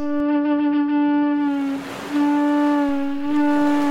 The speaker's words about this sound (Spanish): Si te llevas un caracol a tu boca y le empujas el viento de tus pulmones, entonces suena así.